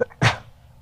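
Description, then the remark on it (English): A single sharp sneeze bursts out, a quick explosive blast of breath that fades fast, with a faint intake just before it. “Bless you.”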